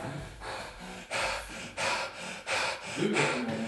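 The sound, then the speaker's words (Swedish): Heavy, breathless panting from a person who has just been running, a quick series of loud, rasping breaths in an uneven rhythm. “Hade jag inte astma så har jag det nu.”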